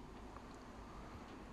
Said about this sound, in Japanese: エアコンの音なんですけど今日のスタジオはちょっと狭くってエアコン切れなくて。てなんでこのまま話してるときっと後ろにさーっと音がするのかなと思いつつ続けていこうと決めたので今日は撮ります